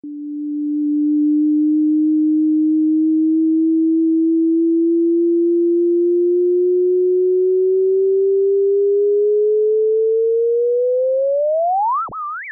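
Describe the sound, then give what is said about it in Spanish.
A sonified merger of two neutron stars orbiting each other, circling faster as they draw closer: a single pure tone holds low and steady, then slowly rises in pitch, sweeping sharply upward into a quick chirp before cutting off. No voices. “Entonces, lo que estamos escuchando aquí es dos estrellas de neutrones que están dando vuelta alrededor del otro.”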